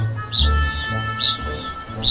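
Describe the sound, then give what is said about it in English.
A kakapo, a flightless New Zealand parrot, calling: deep resonant booming tones layered with a sharp, high chirp that repeats roughly three times, fairly loud, with no one speaking. “Among the strangest, though, is the kakapo,”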